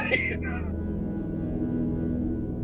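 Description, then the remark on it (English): A short, squeaky chair creak sounds near the start, then stops as a low, steady droning tone carries on underneath for the rest of the moment. “Okay, so if any of the listeners missed that, let me bring the chair creaking more forward on the mix.”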